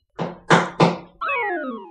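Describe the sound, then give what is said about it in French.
Three loud, heavy hammer bangs land in quick succession, followed by a sustained ringing tone that glides downward in pitch. No one speaks. “Lâche cette scie Oh merde, il a trouvé le marteau.”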